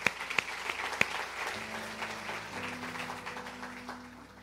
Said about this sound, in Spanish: 15 para la gloria del Señor. Otro aplauso al Señor.